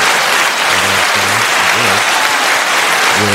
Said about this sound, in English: I'm glad that we are here um, for another season, man. So let's let's clap it up for them.